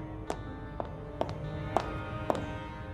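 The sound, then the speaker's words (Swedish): Five sharp, evenly paced heel clicks from Madame Koi Koi's blood-red high-heeled shoes ring out in a hard, echoing school corridor outside a classroom, each tap crisp and slightly reverberant over a faint steady background hum, with no one speaking. “När klackljuden hördes i korridoren utanför stelnade vi till.”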